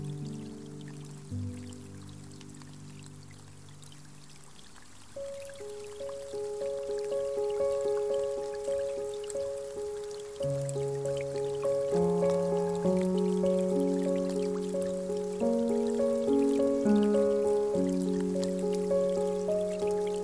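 Steady rain patters softly in the background while gentle piano notes play slowly over it, the music filling the foreground and the rain holding as a constant hiss underneath, with no talking; relaxing meditation audio of rain and piano.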